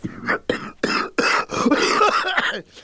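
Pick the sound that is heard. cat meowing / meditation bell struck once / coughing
coughing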